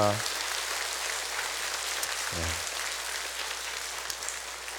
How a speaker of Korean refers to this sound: 4년 만에 재개된 현장 해외 선교 그리고 전주 블레싱 그리고 교육부 수련회 등등 이 모든 일을 행하신 우리 하나님 앞에 감사와 영광의 박수를 올려드립니다. 할렐루야.